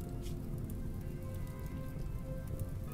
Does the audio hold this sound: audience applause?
no